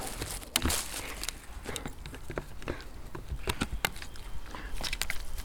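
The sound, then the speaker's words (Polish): A dog gnaws on firewood prepared for a campfire, producing irregular sharp cracks, clicks and splintering crunches in quick uneven bursts over a low continuous background, with no talking. “W tej chwili obgryzane jest drewno, które jest przygotowane na ognisko.”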